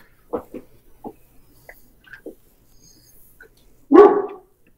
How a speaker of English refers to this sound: All right, that's I hear a mad mut.